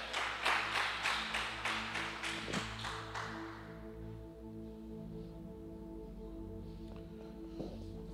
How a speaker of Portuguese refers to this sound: Você pode dar um aplauso ao Senhor e ficar de pé?